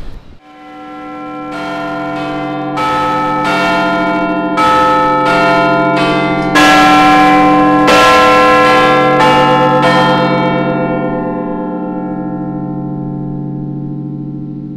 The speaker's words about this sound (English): but it's the most famous bell in the world. And that's because millions of people listen to it every day and can recognise it.